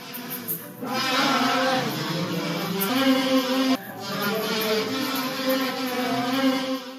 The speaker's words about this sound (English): by a local Ukrainian men's choir, and by seniors playing the kazoo.